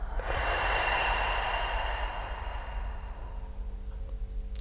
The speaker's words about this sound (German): schließt auch nochmal wirklich eure Augen und konzentriert euch aufs Atmen. Einmal durch die Nase ein, halten und durch den Mund wieder aus.